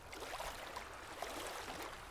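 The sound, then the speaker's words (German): Sea waves rush in a steady, unbroken wash of hiss, soft, with no clear individual breakers and no voices. “Aber nun vom Meeresrauschen rein in meine Küche.”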